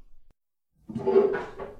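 A chair is dragged briefly and set down: a short wooden scrape and clunk lasting about a second, coming out of silence at moderate loudness with no voices.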